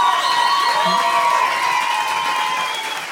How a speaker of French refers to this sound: Ouais, mais les gens vont applaudir, là!